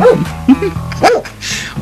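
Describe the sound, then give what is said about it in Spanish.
A dog barks sharply three times in quick succession, fairly loud, with short pauses between the yaps and a faint background hum underneath. “otra, otra vez Pichi Central Perro.”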